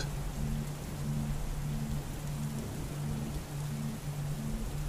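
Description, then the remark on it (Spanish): Steady, heavy summer rain pours down during a storm and patters on surfaces in a dense, continuous hiss, with a low pulsing hum running underneath and no voices. “A la mayoría de las personas les gusta observar una tormenta de verano y la viven en forma plena, disfrutándola algo en ellas le transporta cierta sensación de calma.”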